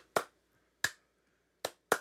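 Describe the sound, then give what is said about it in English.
Four crisp hand claps from the final chorus of a song ring out on their own at uneven intervals, the last two coming close together, each sharp and bright with a quick decay into near silence. “and then just like to wrap it up at the end, the last um like the last outro or the last chorus song they have hand claps”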